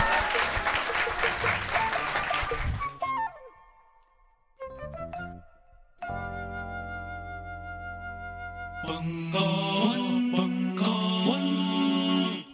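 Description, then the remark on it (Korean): An audience claps loudly and steadily for about three seconds for Professor Hwang Sang-min, who made the group counseling session possible. The applause then fades into chiming tones and an upbeat musical jingle that plays to the end. “어, 어, 집단 상담소를 가능하게 했던 황상민 교수님께 박수 부탁드립니다.”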